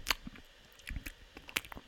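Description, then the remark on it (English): Close-up mouth chewing: moist, crunchy clicks and smacks in an irregular rhythm, loud and intimate right at the microphone, with no talking. “So, you know, on that level, I get the whole ASMR thing is like, you know, kids young people could get really sensitive audio equipment and they turn it on, they put the headphones on, they go, wow, this could pick up my the sound of me chewing.”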